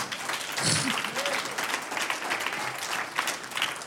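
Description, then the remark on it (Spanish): A crowd of people applauds together for the Lord in a sustained burst of clapping, fairly loud and dense throughout, with a few voices faintly audible beneath it. “Y ahora denle un aplauso al Señor.”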